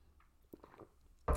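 Someone takes a quick sip of water, with soft wet mouth and swallowing sounds, followed by a sudden louder thump at the end.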